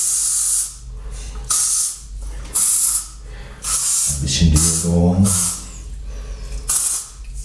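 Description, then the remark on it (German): A nearly empty deodorant spray can hisses in a series of short, loud bursts, about six sprays spaced roughly a second apart, with a brief murmur of voice between two of them. “So, da ist nicht mehr viel Deodorant drin. Das werden wir jetzt noch nutzen.”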